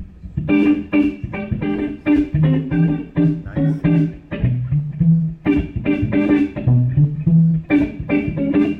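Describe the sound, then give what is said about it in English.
An electric guitar played through two Fender DeVille amps at the same time, with a swirling, organ-like rotary speaker tone, plays a steady run of chords and melody notes, loud, with no talking. “And then yeah, so here's here's that like kind of organ sound.”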